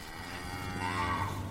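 A cow lets out a single long, low moo that swells slightly in the middle, fairly loud, with no one talking over it.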